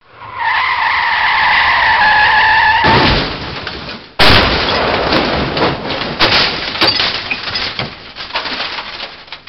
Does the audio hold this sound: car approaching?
yes